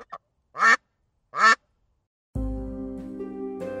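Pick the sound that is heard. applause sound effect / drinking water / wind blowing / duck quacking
duck quacking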